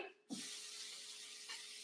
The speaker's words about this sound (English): And so, easy tip you just throw a couple of um, ice cubes in here and fill it with water and let it hmm. sit, let these carrots sit in the bowl.